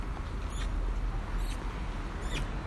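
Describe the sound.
Three short, high squeaky mouth noises, made to call a little female dog, repeat at a steady pace about a second apart over a constant low background hum, with no talking.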